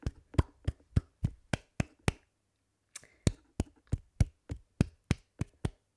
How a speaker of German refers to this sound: Einmal Applaus.